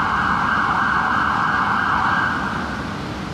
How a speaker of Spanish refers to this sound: estamos en la ciudad. hoy en la ciudad y como pueden oír, están pasando ambulancias y entonces díganos si nos escuchan.